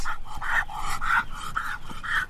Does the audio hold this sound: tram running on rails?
no